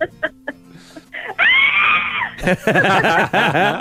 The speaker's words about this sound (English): You know how much I want to scream right now? Scream! scream away! Do it!